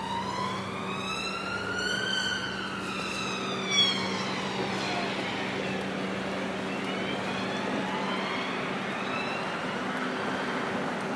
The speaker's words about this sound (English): We're gonna we cross over the little it's like a little motorway thing that's very noisy. But I like this because what happens is it's almost like super noisy just before you go into the woods. So you have like super noisy and then it's super quiet.